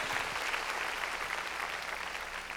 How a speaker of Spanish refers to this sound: Démosle palmas fuertes a Él. Gloria a Dios.